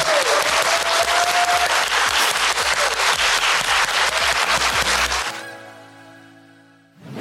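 Loud, dense audience applause with many hands clapping steadily for about five seconds, then cutting away to a soft, sustained tonal chord that fades before a brief swell at the end.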